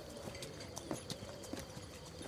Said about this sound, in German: Nun denn, folgen Sie mir und äh, steigt aufs Pferd und zuckelt langsam los.